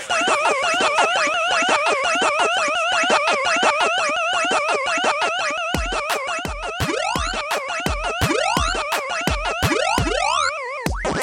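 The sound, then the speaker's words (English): Pac-Man arcade game sound effects: a rapid, warbling electronic chirping loop that repeats steadily, joined midway by a series of descending bloopy tones with low thumps, all loud and without any talking. “If you've never played Pac Man before, it's a little something like this.”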